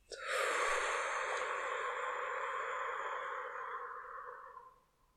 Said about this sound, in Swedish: Och släpp taget och andas ut. Och andas in. Håll lite kort. Och andas ut.